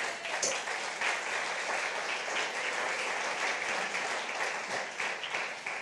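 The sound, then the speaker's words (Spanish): A church audience applauds for God in a dense, steady wash of clapping that holds at an even, fairly loud level for several seconds, with no clear voices rising above it. “Denle un aplauso a Dios.”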